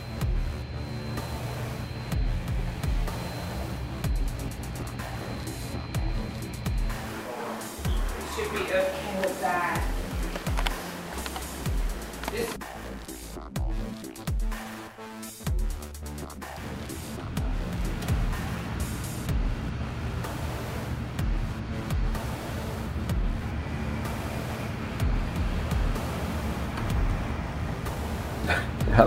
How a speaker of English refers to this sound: hurricane slowed down a little bit, so it's going to take a little bit longer for the bigger winds to get here, but it's coming. Yeah, that's a lot more. Always not good when the worst comes at night. Wow. The wind's kicking now sideways rain